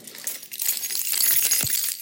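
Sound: keys jingling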